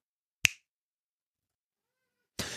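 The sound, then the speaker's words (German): One crisp, sharp finger snap rings out alone, followed by about two seconds of silence before a burst of rough, hissy noise starts at the very end. “Ich schnippe ja, mal.”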